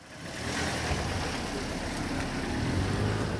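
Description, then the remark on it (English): A car engine rumbles, steady and fairly loud against broad street noise, with no voices, as a vehicle moves slowly through a narrow street in the East Jerusalem neighborhood of Shaya, pedestrians slipping into entryways to let it pass. “In the East Jerusalem neighborhood of Shaya Monday, pedestrians slip into entryways to allow cars to pass in the narrow streets.”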